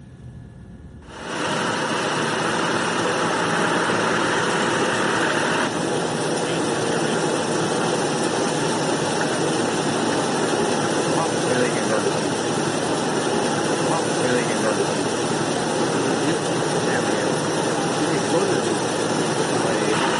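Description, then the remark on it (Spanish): A helicopter's engine and rotor kick in after a brief moment of quiet, then hold a loud, steady roar and whine that continues without a break to the end; the helicopter is taking images in the morning. “Imágenes ya esta mañana tomadas desde un helicóptero.”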